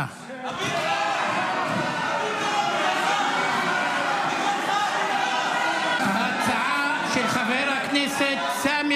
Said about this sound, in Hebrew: הנה רגע התוצאות או הכרזת התוצאות אה, של ההצבעה והתגובה הנזעמת של חברי האופוזיציה. לתוצאות, בעד 54, נגד 55.